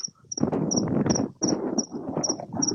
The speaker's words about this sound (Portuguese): Ah, já é outro grilo, viu? o de lá era um, o daqui é outro.